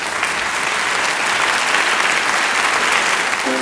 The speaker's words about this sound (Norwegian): Liten applaus. Liten applaus.